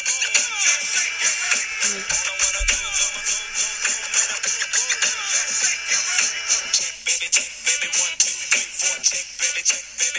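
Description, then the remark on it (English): A 90s rap track plays loudly and continuously, with a steady thumping beat, busy rhythmic layers and a bright, crowded high end, no talking over it. “I mean, it sounds like every rap song.”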